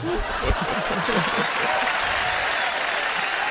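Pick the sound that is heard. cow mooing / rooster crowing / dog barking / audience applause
audience applause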